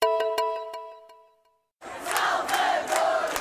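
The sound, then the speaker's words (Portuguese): A bright ringing chime fades out. After a brief silence, a loud crowd of fans cheers and shouts at Lisbon airport, Portugal, on a Sunday, welcoming arrivals, with rising bursts of excited voices. “chegaram este domingo a Portugal com uma multidão de fãs no aeroporto”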